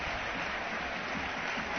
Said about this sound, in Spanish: Aplausos del público.